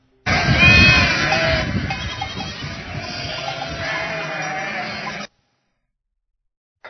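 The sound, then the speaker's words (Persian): Sheep bleat loudly and continuously for about five seconds, several overlapping voices forming a steady, wavering chorus before cutting off abruptly into silence. “بله صدای گوسفندان بود”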